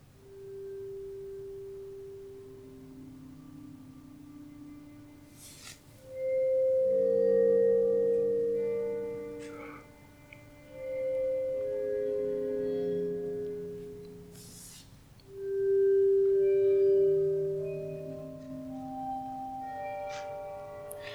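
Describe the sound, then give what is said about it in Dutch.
A short instrumental jingle of sustained, bell-like synth tones playing a melody in three swelling phrases, with a few soft percussive taps and no voices. “lief luisteraars, we gaan gewoon nog even naar een interlootje.”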